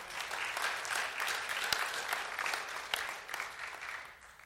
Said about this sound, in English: We had 625 people attend our service last week. We do not have enough leaders. You can clap for that. That's awesome.